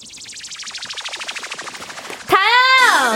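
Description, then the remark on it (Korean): A spacey electronic synth intro of a pop song, played in a speed intro quiz: a fast train of buzzy, clicking pulses steadily speeds up, then a loud, bright synth tone swoops upward and holds with a warbling, sci-fi shimmer. No voices. “아, 아니 어떻게 이 우주선 소리를 듣고 어떻게 맞춰요? 찌찌찌찌이 소리를.”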